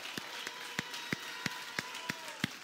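An audience claps together during a worship service in a steady, brisk rhythm, eight sharp unison claps about three per second over a soft, sustained background wash with a faint held tone.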